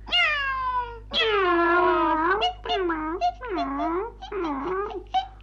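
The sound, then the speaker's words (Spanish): A cat meows repeatedly, about five drawn-out, whiny calls in quick succession, fairly loud, with no talking around them. “¡Qué gato más aragán!”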